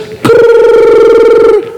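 A single loud telephone ring with a buzzy, warbling electronic tone that sounds alone for just over a second, then stops abruptly.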